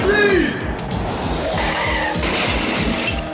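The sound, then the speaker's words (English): A car's tires squeal in a sharp skid, followed by a run of loud crashing impacts and rumbling engine noise that continue for a few seconds. “he crashes into well, you guessed it, poor old Rax and Piranha”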